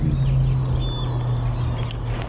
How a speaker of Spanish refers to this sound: Escucha los pájaros.